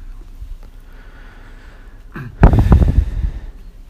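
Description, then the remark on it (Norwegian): A faint breath is drawn in, then a loud, rough, airy exhalation rushes out for about a second before tapering off, as a person breathes deeply in and out while someone listens to the lungs from the back. No one speaks. “Da kan du puste litt sånn dypt inn og ut, så skal jeg høre bak på ryggen her over lungene først.”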